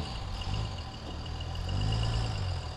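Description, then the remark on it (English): A heavy diesel engine of a semi truck with a trailer rumbles steadily at low revs, its deep drone rising slightly as it creeps slowly through a course lined with cones. No voices are heard. “He might end up hitting these cones on the way out with the trailer.”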